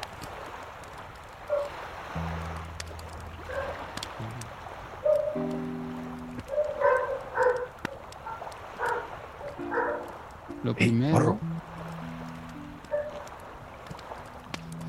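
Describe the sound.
Dogs bark off in the distance in scattered, uneven bursts, fairly faint, over a low steady droning hum with some muffled voices.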